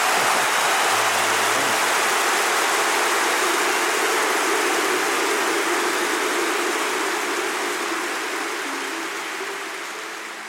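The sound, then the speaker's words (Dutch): A stadium crowd of 55,000 people applauds in a dense, continuous roar of clapping that holds steady for several seconds, then gradually fades toward the end. No one speaks over it. “Aan het einde een applaus van 55.000 man.”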